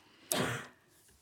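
A single short cough bursts out abruptly, fairly loud, then trails off quickly into quiet room tone with no talking around it.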